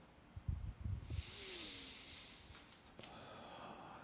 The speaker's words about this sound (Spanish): Así que vamos, vamos a prepararnos, vamos a ponernos cómodamente, lo que era que estemos. Vamos a tomar una respiración profunda.